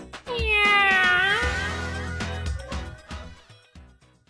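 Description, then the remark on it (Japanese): A single long, drawn-out cat meow rises and falls, loud, then gives way to a few short, punchy percussive beats, like a brief musical sting. “ハライチのにゃー猫になっちゃったにゃ”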